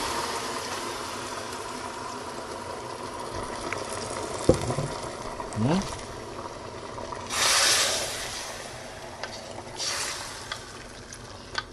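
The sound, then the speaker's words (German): A good splash of red wine is poured into a hot pan, setting off a steady hiss and bubbling sizzle, with a few clinks and two louder bursts of spitting steam as it keeps boiling. “Jetzt gießen wir das an guten Schuss Rotwein.”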